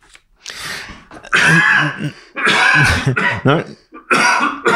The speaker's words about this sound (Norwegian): Lite hosteanfall der